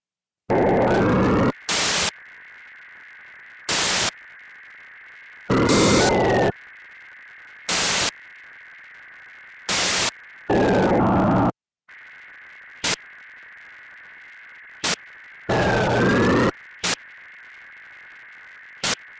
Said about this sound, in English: Examples with long and short noise bursts variation.